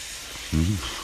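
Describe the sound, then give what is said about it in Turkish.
A train coming to a stop: a steady, broad steam hiss fills the whole second, and a loud, pitched wail swells and bends in the middle before fading back into the hissing. “Kara kız tıpkı şu trenin duruş sesi gibi mi bağırıyordu?”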